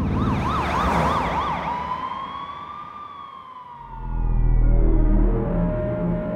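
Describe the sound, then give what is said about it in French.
A police patrol car siren wails in a fast yelp, then shifts into a long rising-and-falling tone as the car speeds toward the Presidio district, with a low engine rumble swelling near the end. “Fouque enclenche son gyrophare et fonce vers le quartier du Presidio.”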